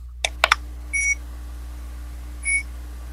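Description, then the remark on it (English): Three quick, sharp button clicks on a digital thermometer, then two short high-pitched electronic beeps about a second and a half apart, fairly quiet over a low steady hum. Nobody speaks. “how loud is your thermometer?”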